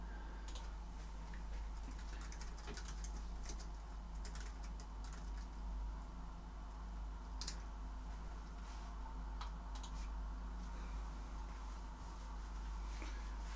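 Soft, irregular clicking of keys as someone types a message into a chat on a computer keyboard, in uneven bursts over a low steady hum, fairly quiet, with no one talking.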